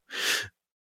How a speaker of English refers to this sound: That's my dog shaking his collar.